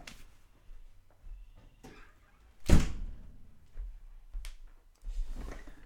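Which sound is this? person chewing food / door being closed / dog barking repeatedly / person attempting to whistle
door being closed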